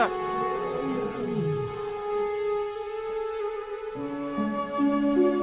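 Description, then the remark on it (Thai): A low, rumbling lion roar rises and then slides downward over about a second, set against sustained, steady musical tones that continue after the roar fades. No one speaks. The lion roars as it leaps in front of a group of people, the roar echoing through the forest. “คนเหล่านั้นครั้นเห็นพญาราชสีกระโจนมาตรงหน้าทั้งคำรนเสียงก้องป่า ก็พากันหนีกระเจิดกระเจิงไป”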